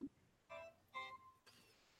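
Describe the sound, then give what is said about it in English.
A phone alert chimes three quick electronic tones in a short rising pattern, fairly faint, with no talking over it; the phone was being set to vibrate when the alert went through. “What the hell was that? That was my phone.”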